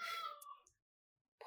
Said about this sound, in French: Oui, excusez-moi, c'est mon chat en même temps.